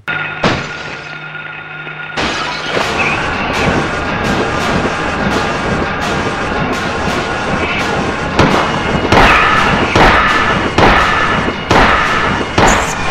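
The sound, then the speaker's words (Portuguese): A sudden loud, shrill burst of a window shattering, followed by a long run of heavy, rhythmic whooshing beats of a bizarre winged creature flapping its wings loudly, over a sustained eerie tonal drone. “Quando ele tá saindo, vem um susto, né? Que é o, som estridente da janela estourando. Entra uma criatura bizarra, alada, batendo as asas, assim, com um barulho bem alto.”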